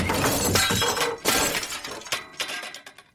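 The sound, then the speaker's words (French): Glass shatters loudly upstairs in the Château Orange with a crash, followed by a second smash and the tinkling scatter of falling shards that fade out over a few seconds, with no voices. “Soudain, un bruit fracassant de verre brisé retentit à l'étage.”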